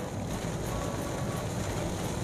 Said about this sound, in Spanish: No tenemos ni 30 kilómetros que, hemos, que salimos de la ciudad de Mérida y, nos estamos encontrando con, esta lluvia.